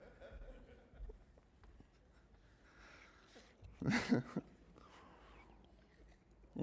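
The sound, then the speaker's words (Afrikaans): A dog barks once, a short loud burst in the middle of an otherwise quiet stretch with faint breathing and low murmuring in the background. “Jammer oor daai hond ene.”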